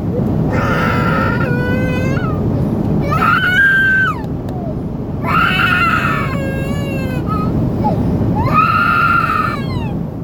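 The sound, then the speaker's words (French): Young children scream and wail in repeated high-pitched bursts, loud, over a constant low roar of aircraft cabin noise on an overnight flight leaving the United States. “On était entouré de bambins. Arrêtez d'hurler sur tout le voyage.”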